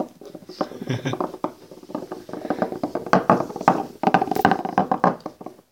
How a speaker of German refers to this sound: Würfel sind überhaupt so eine schöne Sache. Jetzt liegt hier auf dem Tisch ein 120 Flechner, der macht schöne Geräusche.